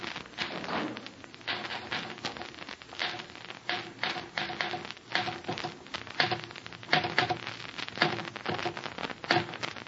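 Steady, rapid typewriter typing: a dense run of sharp mechanical key clacks with small irregular pauses, continuing throughout at a moderate level with no voices.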